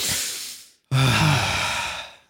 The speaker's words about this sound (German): Also, gut, wir atmen einmal kurz durch gemeinsam. Okay.